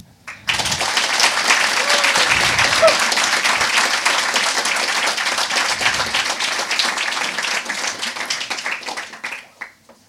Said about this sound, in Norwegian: Så er det sånn at eh, P2 gjerne vil at opptaket begynner med litt applaus. Så før jeg introduserer temaet, vil jeg be dere om å klappe når dere får et klarsignal fra meg. Da kan de gi det. Klapp